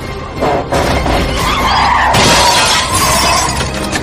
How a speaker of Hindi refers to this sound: गाड़ी का बॉनेट एकदम अचानक एक झटके से खुला और खुलकर इतनी तेज विंडशील्ड से टकराया कि पूरा कांच छोटे छोटे टुकड़ों में बिखर कर कार के सामने की सीट पर फैल गया